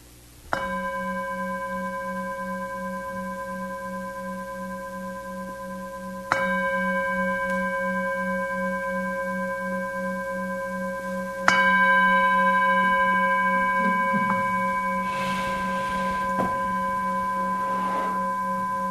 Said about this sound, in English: the sound of the bell will now really signify the end of the set.